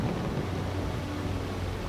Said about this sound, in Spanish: Pero el Señor desató sobre el mar un fuerte viento y hubo una tempestad tan grande en el mar que el barco estuvo a punto de romperse.